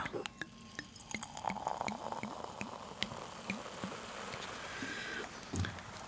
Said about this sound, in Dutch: Dit klinkt altijd erg mooi. Het inschenken van een eh, heerlijk glas eh, champagne.